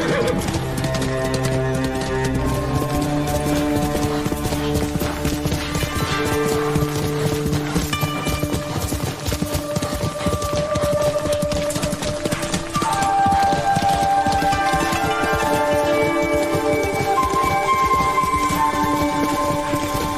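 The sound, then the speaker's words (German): Horse hooves clip-clop at a steady pace beneath loud, sustained orchestral music that fills the whole scene, with no talking. “hoffe, dass man nicht wegen jedem Scheiß vom Pferd fliegt wie bei Red Dead 2.”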